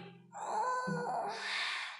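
A single long yawn, fairly loud, starting with a drawn-out voiced moan and trailing off into a breathy exhale, with no talking.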